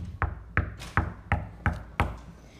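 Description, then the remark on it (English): A knock at a door: six sharp, evenly spaced raps in a steady rhythm, fairly loud, with no voices and only quiet room tone between the hits. “There was a knock at the door.”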